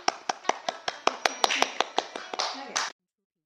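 Rhythmic applause welcoming a story session mentor who will explain a short story, sharp claps landing in a steady beat about five times a second, then briefly thickening into a denser burst before stopping abruptly.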